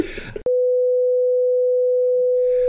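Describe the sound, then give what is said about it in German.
Speech is abruptly cut off by a loud censor beep covering a spoiler, one steady mid-pitched tone held for over two seconds, with faint voices barely audible beneath it near the end. “Piepen. Okay, dann piep ich das raus.”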